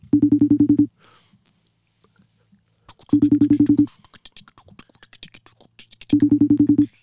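A phone ringback tone sounds three times, each burst a rapid buzzing trill under a second long, separated by pauses of about two seconds with faint rustling and murmurs in between.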